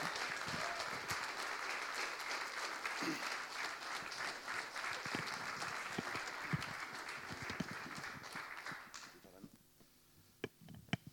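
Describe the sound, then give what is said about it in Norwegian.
Sustained audience applause welcomes a top-three finalist of Norske Talenter and her mother, a dense wash of clapping that fades out near the end, leaving a few scattered claps and faint background sounds. “Og det er med stor glede jeg syns at vi skal gi dem en varm applaus til”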